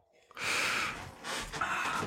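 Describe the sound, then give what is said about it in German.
Two muffled, breathy coughs from someone set back from the microphone, the second following closely after the first, fairly quiet with no talking. “dann sag doch einfach, dass du husten musst.”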